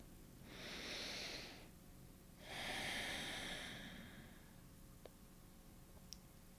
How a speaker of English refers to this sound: Let's take another deep breath.